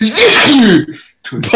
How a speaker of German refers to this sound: Gesundheit.